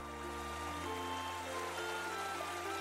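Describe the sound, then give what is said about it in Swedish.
A steady, continuous babble of flowing water from the river Täf running alongside a village, even and unbroken throughout, with a soft low hum running beneath it. “Ett dovt ljud av fågelkvitter ackompanjeras av det porlande vattnet från floden Täf som rinner längs med byn.”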